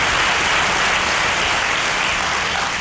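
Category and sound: crowd, audience applauding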